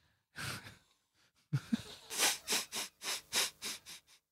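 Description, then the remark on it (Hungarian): A long breathy exhale, a brief pause, then a quick rhythmic run of about eight sharp, airy sniffs, as if smelling water, steady and fairly loud with no talking. “Megszagoltad a vizet? Megszagoltam a vizet.”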